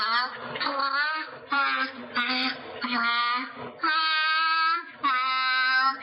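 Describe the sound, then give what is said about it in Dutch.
A grey seal sings a tune, imitating a melody to earn a fish, in a string of drawn-out, voice-like notes, each sliding in pitch, with short pauses between phrases. It sounds clear, with no talking. “Dat was de zeehond.”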